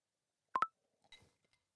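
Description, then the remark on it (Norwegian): Two quick electronic beeps in close succession, like a FaceTime video call connecting, followed by a few faint soft clicks. No one speaks. “Um, vi går på, på FaceTime.”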